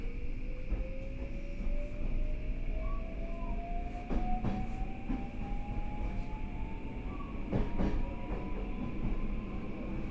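A JR Kyushu 821 series electric train runs steadily between Futsukaichi and Hakata, Japan, heard from inside, with a low rumble, a motor whine rising in pitch as it picks up speed, and periodic clickety-clack thumps of wheels over rail joints.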